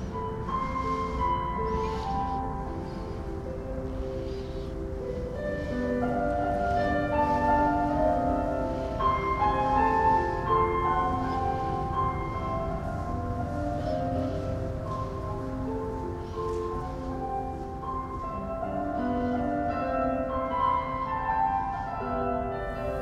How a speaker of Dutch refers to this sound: De stad komt nergens zo goed binnen als hier, ook al zien we ze niet. Op de achtergrond horen we de soundscape van Hasselt.